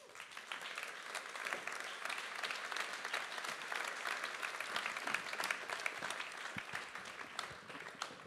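Sustained audience applause, a dense steady wash of many hands clapping at even loudness for the whole stretch, with no voices standing out.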